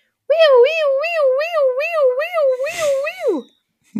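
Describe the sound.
A child, the speaker's son, imitates an American police car siren while running around, a high wavering wail rising and falling about three times a second for three seconds, with a short breathy break before a final downward slide.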